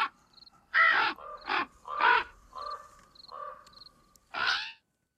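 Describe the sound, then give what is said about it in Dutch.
A crow caws loudly, a series of about five harsh, raspy calls spaced irregularly over a few seconds, with fainter chirps from other birds in the background. “Tot slot een gesprek over een bijzondere vogel. U herkent vast zijn geluid.”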